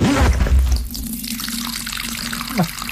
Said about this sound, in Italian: questo che cazzo è? è urina!